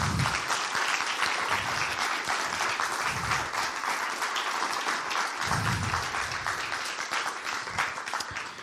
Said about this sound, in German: Vielen Dank. Kräftigen Applaus.